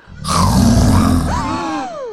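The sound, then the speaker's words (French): A single loud, rough roar of a little monster at a village carnival, growling and raspy for about a second, then trailing off into a falling, moaning wail, heard alone. “Mais son rugissement est un peu effrayant. Quand il fait”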